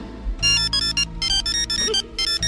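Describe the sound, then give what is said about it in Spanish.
A funny electronic doorbell at a security booth by a building's entrance plays a quick, bouncy melody of bright, repeated tones in short bursts, loud and alone with no talking. “Mira qué timbre más gracioso, ¿eh?”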